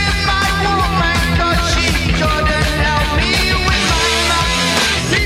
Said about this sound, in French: Avec le chanteur qui, qui chante à la cave. c'est quand même. Mais il euh, chante dans une pipe reverb. Euh, c'est un son très typique des années 70.